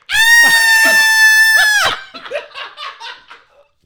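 A loud, high-pitched scream held steady for nearly two seconds, then breaking off into short, choppy breathy bursts that fade out.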